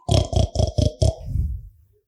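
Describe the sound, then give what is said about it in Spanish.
A voice imitates a pig, giving five quick, loud, raspy grunts in a steady rhythm, then trailing off into a lower, drawn-out snorting grunt that fades away. “Ah, es un micrófono que solamente hace idioma chancho.”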